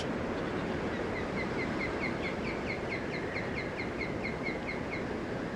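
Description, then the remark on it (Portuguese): An osprey, typical of the region, gives a steady series of short, high whistled chirps overhead above the summit of Feldberg mountain, with the forest wrapped in mist, repeating rapidly throughout, over a constant rushing background of wind-like noise. “Acima de nós, apenas uma águia pesqueira típica da região.”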